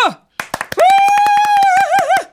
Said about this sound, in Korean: 넌 정말 대단한 녀석이야. 다들 박수!